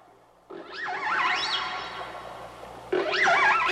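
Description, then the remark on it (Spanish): Whale song: long, wavering tonal calls that swoop up and down in pitch with bright overtones and an echoey wash, followed by a louder second phrase. No voices. “Esta es la voz de las ballenas en el rincón de los niños, porque hoy vamos a hablar de ballenas.”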